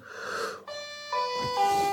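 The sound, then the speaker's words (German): An electronic doorbell rings during a live video, chiming a short melody of sustained, bright tones, stepping through three or four notes with ringing overtones, heard on its own without any talking. “Jetzt während des Live-Videos klingelt die Tür.”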